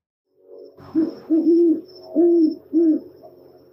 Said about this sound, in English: And the call of the great horned owl sounds like what you would expect, right,